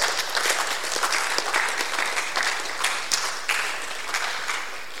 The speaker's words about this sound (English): If you're happy, clap your hands.